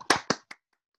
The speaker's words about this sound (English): Oh yeah, sorry, clapping, clapping, virtual insert clapping. claps.